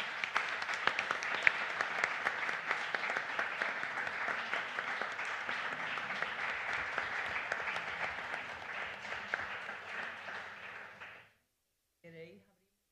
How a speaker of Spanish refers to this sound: Pues nada, primero un aplauso.